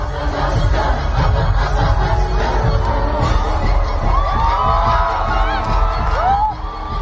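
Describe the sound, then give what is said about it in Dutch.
A packed stadium crowd at a concert roars continuously, many voices singing along together while shrill cheers and rising whoops cut through the loud, steady wash of noise. “toch echt het geluid van een stadium vol aan mensen.”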